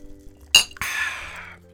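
Two glasses clink together in a toast, first a quick sharp tap, then a brighter ringing clink that lingers and fades over about a second. It is fairly loud, with no talking.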